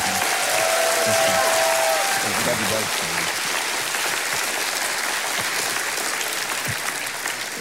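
The audience of Journey Church applauds loudly and steadily to welcome a guest pastor, a dense wash of clapping with a few whoops and cheers mixed in, sustained throughout before easing slightly near the end.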